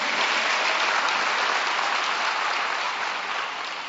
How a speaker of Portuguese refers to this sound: Vocês estão celebrando aí? Você pode aplaudir o Senhor?